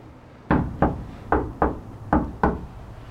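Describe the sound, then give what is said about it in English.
Six firm knocks on the front door of a home in Detroit at night, struck in three quick pairs with short pauses between, fairly loud against a quiet background, with no voices. “How was that knock?”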